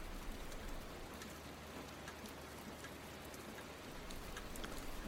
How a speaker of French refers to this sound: Aujourd'hui, j'aime regarder la pluie tomber par la fenêtre et le nez collé à la vitre, que la buée se forme et me retrouver bien au chaud.